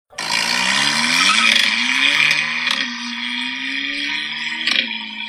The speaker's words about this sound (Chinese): 因为这个 1.4T 的发动机啊，它换完排气以后，声音是真的不太好听。我还特地找了一下那个 RES 排气中尾段的声音，我在这边反正转录一下给大家听一下吧。